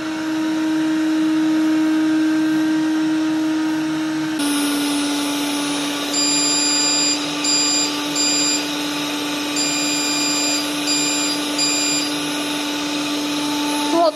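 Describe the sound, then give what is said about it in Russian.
A HOBOT 298 window-cleaning robot runs on dusty balcony glass unwashed for about a year, with a loud, steady suction-motor drone and a low hum. About a third of the way in, its tone shifts, and faint high squeaky chirps start recurring. “Робот для мойки окон HOBOT 2”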